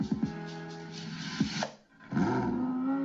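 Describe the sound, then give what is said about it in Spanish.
A speedboat in Monaco: a loud, rough motor roar revs up and down in pitch, cuts out briefly near the middle, then surges back and holds steady, dominant with no talking. “Y ese es el sonido de la lancha.”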